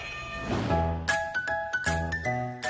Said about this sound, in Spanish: Bajo bonito, muy bien. Suenen en la campana, muchachos. Bajo bonito.